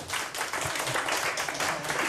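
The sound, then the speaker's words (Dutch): A crowd applauds steadily, dense overlapping clapping that stays at an even, fairly loud level throughout without pause; applause for a member of a young jazz trio whose birthday was two days earlier. “Nou, daar moeten we nog even een applaus voor geven, toch?”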